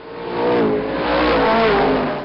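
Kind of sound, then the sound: vehicle, car accelerating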